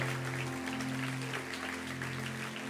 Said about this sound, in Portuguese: Você pode aplaudir, porque a gente está numa família.